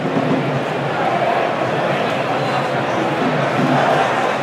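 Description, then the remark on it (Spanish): A large football stadium crowd at Castalia, Castellón's ground, fills the space with a steady, dense roar of cheering and clapping, sustained at an even, loud level throughout with no pauses, as Castellón, leading 3-1 in the second half, line up a set piece taken by Jesús de Miguel. “Le quiere pegar de Miguel, aplaude castaña que quiere ver el cuarto, ¿eh?”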